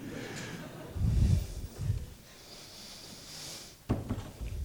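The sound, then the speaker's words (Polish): A door being opened: a couple of dull, low thuds followed by a sharp click or latch rattle, moderately loud, with no one talking. “Zapraszam, właśnie otworzyłem drzwi.”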